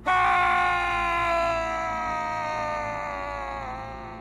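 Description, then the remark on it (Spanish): A single loud, sustained terrified scream of someone slipping off a cliff and falling into a cold, black lake, its pitch sliding slowly downward for about four seconds and gradually fading, with no talking around it. “Con un grito terrorífico, se resbaló del acantilado y cayó al lago negro y frío.”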